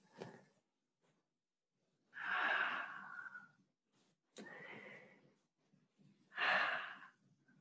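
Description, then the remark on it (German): Slow, deep breaths during a guided meditation, three long airy exhales spaced a couple of seconds apart, with a faint sighing tone and quiet pauses between them and no talking. “Und wir atmen einfach weiter.”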